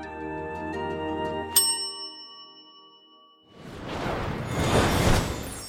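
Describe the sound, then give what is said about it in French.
A single bright ding of a counter service bell sitting on a counter in a tiny, sober, elegant shop entrance hall rings out clearly and fades slowly, followed by a loud, rushing swoosh that swells and then trails off. “Un hall minuscule, sobre et élégant, avec pour seul mobilier un comptoir et une sonnette posée dessus.”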